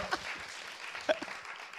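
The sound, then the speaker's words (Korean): A crowd applauds with a steady, dense patter of many hands clapping at once, fairly soft and continuous for about two seconds, with no one speaking over it. “오케이, 박수 한번 주세요.”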